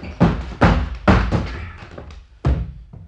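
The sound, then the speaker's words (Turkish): Heavy, booming thuds pound against a door as police try to force it open: four loud blows, the first three in quick succession, a short pause, then another, with no voices. “Eğer açmazsanız kırmak zorunda kalacağım.”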